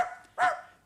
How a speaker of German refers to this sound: Nein, nein, nein, nein, das war ein Hund.